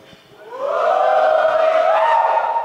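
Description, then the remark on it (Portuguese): A live audience of worship leaders from various places in Brazil, at Imersão IACA 2020, shouts a loud, drawn-out greeting together, many voices swelling quickly into one sustained, rising cheer that holds at full strength to the end. “Vamos ouvir um oi do pessoal aí.”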